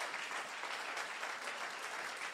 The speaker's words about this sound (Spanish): Alguien le dice gloria a Dios y le da un aplauso fuerte a Jesús.